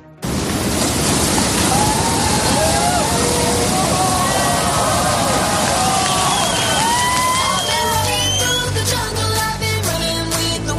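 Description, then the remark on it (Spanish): A giant surf wave, called "the giant cow" for its mooing sound, roars at a big-wave surfing competition. It is a loud, continuous wash of rushing water, with wavering, groaning tones rising and falling through it like a low moo, turning choppier near the end. “Imagínate una ola gigantesca la llaman la vaca gigante por ese mugido que hace realmente esta ola.”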